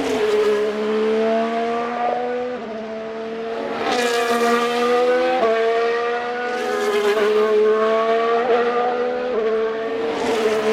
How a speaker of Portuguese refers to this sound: vamos passar dois sons que ilustram bem a diferença que o automóvel teve nos últimos anos. O primeiro é uma gravação do som de um Fórmula 1 desta temporada.